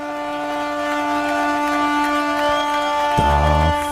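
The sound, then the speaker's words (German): Ship horns from a ship and the whole harbour blare together in a long, sustained chorus, celebrating at an annual festival once the ring thrown into the water by the bishop is found. Near the end a deeper, louder horn blast joins in over the steady harbour din. “freut sich das Schiff und der ganze Hafen, wie Sie hören.”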